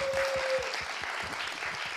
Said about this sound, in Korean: 박수 한번 좀 부탁드리겠습니다.